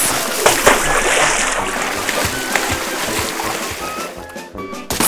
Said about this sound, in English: Splash, splash. Fish is first. Dog is last.